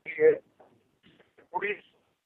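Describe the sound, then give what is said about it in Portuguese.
A voice over a mobile phone call cuts in and out, short garbled bursts of speech separated by dropouts of near silence as the connection breaks up. “é a ligação por telemóvel está a degradar-se.”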